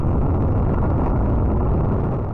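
A loud, steady roar of the SpaceX Crew Dragon capsule's SuperDraco engines firing during a test, a dense rumbling blast of thrust that holds without a break from start to finish, overwhelming, with no voices.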